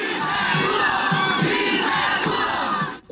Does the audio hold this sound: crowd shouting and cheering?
yes